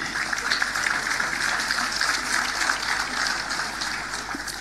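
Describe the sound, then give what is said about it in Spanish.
An audience claps steadily for several seconds, a dense, even wash of many hands with no pauses, holding at a fairly loud level before easing slightly toward the end, applauding to greet the members of the commune's council. “Saludamos a todos quienes componen el cuerpo de concejales de nuestra comuna con un fuerte y caluroso aplauso.”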